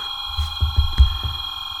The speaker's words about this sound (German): Ja, das ist live. Eben war die Schulklingel zu hören.